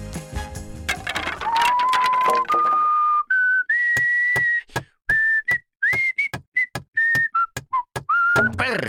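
A person whistles a lilting waltz melody, clear, with held notes and short phrases, while sharp knocking or hammering sounds of renovation work punctuate it throughout.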